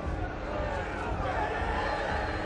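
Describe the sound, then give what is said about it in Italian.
A dense, steady clamor of many voices from an approaching angry crowd, an overlapping rumble of shouting and muttering with no single words standing out, holding at an even loudness throughout. “Sottotitolo era Folla in, folla in collera che si avvicina.”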